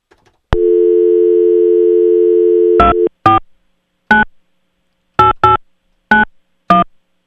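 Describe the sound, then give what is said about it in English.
A steady dial tone hums for a couple of seconds, then gives way to about eight crisp touch-tone beeps punched in at an uneven pace as a phone number is dialed, clear, with no voices. “I hope that that number can be like decoded so that people know what his number is.”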